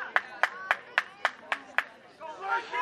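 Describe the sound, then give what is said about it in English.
A baseball crowd in Plover claps in steady unison, cheering their pitcher toward finishing a no-hitter: seven sharp, evenly spaced claps in a quick rhythm, followed by a faint murmur of voices and background noise. “The crowd here in Plover knows the situation. They're trying to cheer Noah over the finish line”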